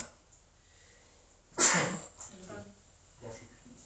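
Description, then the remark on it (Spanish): A single sharp sneeze bursts out loud after a quiet stretch, followed by softer voices murmuring briefly. “Salud.”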